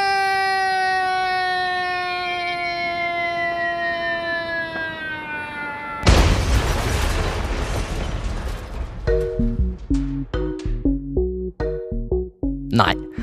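A cartoonish falling whistle slides steadily downward for several seconds, then a loud crash bursts in, followed by scattered clanks and thuds of tumbling debris, as a hot-air balloon with a rip in its fabric falls and slams into the ground.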